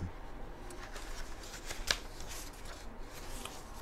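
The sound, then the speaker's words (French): Many sheets of paper rustle and shuffle in a steady, crinkly stream, with one sharper snap of a sheet partway through. No one speaks. “Ensuite, en avant, je suis désolé, il y a beaucoup de feuilles.”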